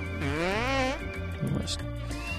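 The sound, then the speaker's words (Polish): A single drawn-out, loud moo from an inflatable toy cow that moos when a button is pressed, with a wavering, rising-then-falling pitch, followed by a brief rustle and some quieter background sound. “Mucząca krowa.”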